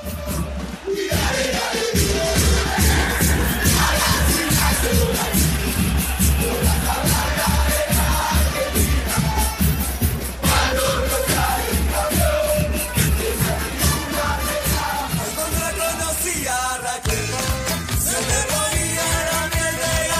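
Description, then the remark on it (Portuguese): A large crowd of Boca football fans sings a chant in unison, directed at River's fans, loud and sustained, with steady rhythmic drumming or clapping driving the song throughout. “Então vamos escutar a versão da torcida do Boca”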